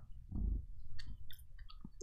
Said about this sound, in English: I mean, when you first put it in your mouth, is sugar. But as you chew it a little bit, and it gets softer.